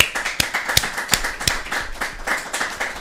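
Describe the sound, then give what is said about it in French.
A small group of people who are present applauds, with scattered hand claps building into a steady patter and a few sharper, louder claps standing out. No one speaks. “Alors à vous tous, je vais vous demander à ceux qui sont présents, ça va pas faire beaucoup de bruit, mais on va pas agiter des journaux pour faire de l'applaudissement, mais bravo à vous et merci.”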